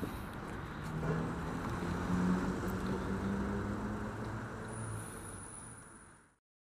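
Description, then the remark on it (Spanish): Motorcycles rumble past on a busy street, their engines droning steadily for several seconds before cutting off abruptly, with a faint high whine near the end. “Y entre las motos escucho de repente como los postes que suenan, no sé si serán los transformadores.”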